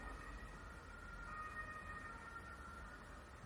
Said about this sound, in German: Mensch, hörst du die Sirenen? Das ist ja Wahnsinn. Das hört ja gar nicht auf.